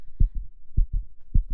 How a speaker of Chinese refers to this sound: 这时候，海克力斯的耳里只能听见巨狮啪啪啪的脚步声，还有自己咚咚咚咚咚咚的心跳声。